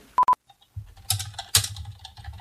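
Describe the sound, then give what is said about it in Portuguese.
Two quick electronic keypad beeps, then a rapid, busy clatter of taps and clicks as a woman frantically types a text message on a keypad, fairly loud over a low background rumble, with no one talking. “E ela tá digitando freneticamente.”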